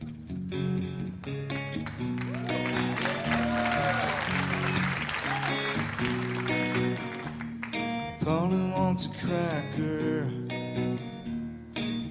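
A live rock song: a male voice sings over steady, strummed guitar chords while a loud crowd roars and applauds continuously underneath.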